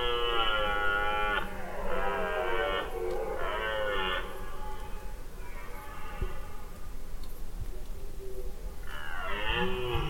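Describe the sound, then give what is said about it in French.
A red deer stag bellows during the rut, giving a series of loud, drawn-out roars with short pauses between them, over a constant low rumble of background noise. “La nuit des cerfs”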